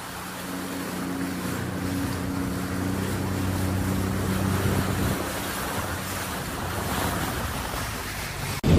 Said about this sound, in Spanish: Bro, literal, nada como coger un jet ski en Cancún con el agua cristalina.